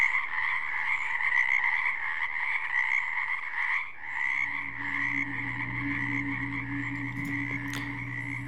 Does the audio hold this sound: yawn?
no